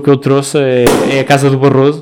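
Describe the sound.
A sparkling wine bottle is uncorked with one sharp, loud pop about midway through, while a man keeps talking before and after it.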